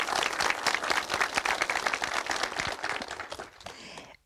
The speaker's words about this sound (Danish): Rumsnak Live med et spil levende publikum, som man kan høre her